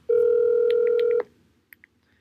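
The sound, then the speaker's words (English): A steady telephone dial tone hums for about a second while several quick keypad beeps tap over it as a call is placed, then it cuts off, followed by two short, faint beeps alone. “He had a phenomenal performance, and um, we're going to give him a ring right now and see what he is up to and how he feels.”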